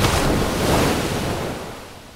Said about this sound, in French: 2005, plage de Madras en Inde. Les bras levés avec mon voile de mariée à la main, je rentre dans la mer et sens le courant et les vagues qui entraînent mon voile.